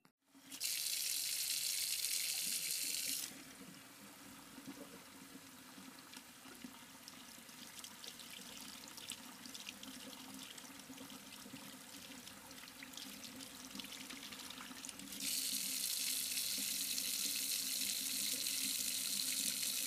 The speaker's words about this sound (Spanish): Llenan sus botellas de agua